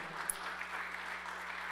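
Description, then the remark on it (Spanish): An audience claps together in a steady, dense wash of applause that fills the whole moment, with no voices on top. “Dele otro aplauso fuerte.”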